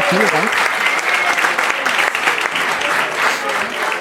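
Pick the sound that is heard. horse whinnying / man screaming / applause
applause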